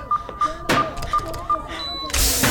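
A door is slammed shut with a heavy thud, followed by a louder crash and scraping as it is forced closed, while a steady electronic beep repeats in the background.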